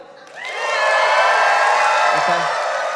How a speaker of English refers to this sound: This is a youth conference, and you're you're you're in the eighth grade, just picture yourself eighth grade right now, and let's just let's just cheer and clap like it's eighth grade youth conference. Ready? Go.